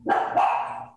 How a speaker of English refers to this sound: that's my dog. I apologize.